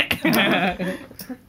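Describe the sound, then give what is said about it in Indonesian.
A short, wavering, bleat-like cry that sounds like a person imitating a goat, loud, trailing off after about half a second into quieter voice sounds. “ntar ada suara kambing lagi”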